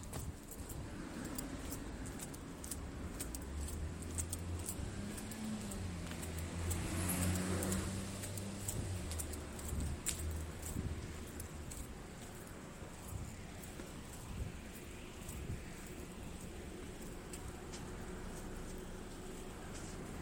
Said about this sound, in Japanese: 道路を渡ろうとしたら結構車がありますありますってなんだ車が結構通りますねどうなんでしょう一時期に比べて多いんですかね車